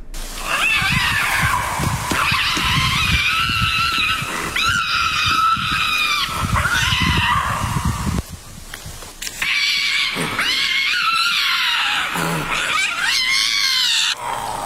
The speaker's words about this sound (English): he spotted two lynx. They were screaming and sparring with each other up in in some trees